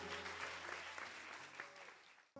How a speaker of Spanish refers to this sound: Y amén, de un aplauso al Señor.